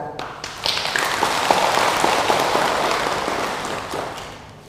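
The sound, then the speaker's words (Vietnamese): An audience at a Pure Land Buddhist talk breaks into steady applause, a dense crackle of many hands clapping at once that holds for several seconds before tapering off. No one speaks. “và nếu như quý vị thấy rằng là điều này có thể thực hiện được xin dâng cao tràng vỗ tay”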